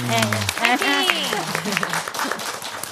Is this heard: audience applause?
yes